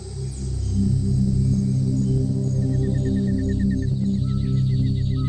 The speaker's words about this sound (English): For a third time, the sound of jungle drums echoes through the still night air.